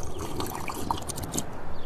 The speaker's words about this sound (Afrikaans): En toe Taiman weer eens niks sê nie, slurp Haas die water gulsig op.